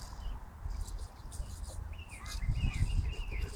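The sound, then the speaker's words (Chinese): A Eurasian blackbird sings at dusk in Beijing in April, on the Qingming Festival: a few fluting, warbling phrases rising in the second half over a steady low rumble of background noise. “跟我感受一下，在黄昏，在北京的四月，清明节的晚，清明节的啊傍晚，听它还在叫，乌冬的叫声。”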